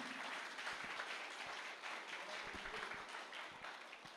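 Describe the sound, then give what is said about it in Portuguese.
An audience applauds the name of the Lord at a morning church service, a dense wash of many hands clapping at an even, sustained level for several seconds, with no speech over it. “Você pode aplaudir o nome do Senhor aqui, queridos?”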